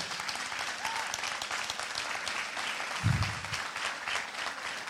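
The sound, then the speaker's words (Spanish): An audience claps steadily, a dense crackling wash of many hands that holds at an even level throughout, with a brief low thump around the middle. “Eso, eso merece un mejor aplauso.”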